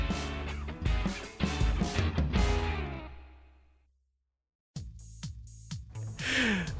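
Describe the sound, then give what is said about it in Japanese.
Natural human beatbox vocal percussion performed for The First Take, punchy mouth-made kicks and snaps over hummed tones, breaking off into a short silence before a second burst of beats rises to a loud finish. “ナチュラルヒューマンビートボックスをお聴きいただきありがとうございました”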